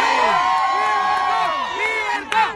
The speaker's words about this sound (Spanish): Y ese es el coro que se escuchó en muchas de las martas y manifestaciones en Miami, en, en, Tampa, en Nueva York, en la capital, en Washington, D.C., en diferentes partes del mundo también, China.